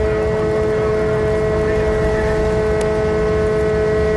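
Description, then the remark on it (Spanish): Boat sirens and horns blare outdoors in long, steady, overlapping tones, loud and continuous, over a rumbling engine-like background, with a brief sharp click near the end, as the boat carrying the Virgen del Carmen approaches. “Esas sirenas, esas bocinas del barco que suenan en el exterior.”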